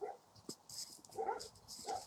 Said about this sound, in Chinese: 你听，这个那狗开始跟我争这个发言权了啊！好吧，那不管它争不争，反正我走快走过这块地方了。嗯，它只是听到了我的声音而已。